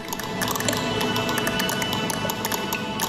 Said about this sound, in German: Das Klicken, das ist genau eben der Trockenstress, der dazu führt, äh, dass in dem Baum quasi der versucht, Wasser zu ziehen. Es gibt kein Wasser und dann reißen halt im Prinzip ähm, ähm, Gefäße in diesem Baum und das hören wir.